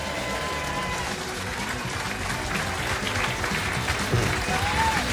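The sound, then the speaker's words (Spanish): A steady wash of audience applause, many hands clapping in a dense, continuous patter at an even loudness throughout, with no voices standing out. “Ahora tenemos gente nueva aplaudiendo.”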